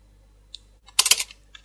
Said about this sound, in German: Frau Klammer hämmerte mit geschwinden Fingern Briefe in die Tastatur ihres Computers.